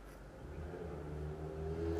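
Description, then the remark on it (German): An engine hums low and steady, its tone rising slightly as a motorcycle rolls past outside, growing a little louder toward the end. No one speaks. “Warum muss genau jetzt ein Motorrad vorbeifahren?”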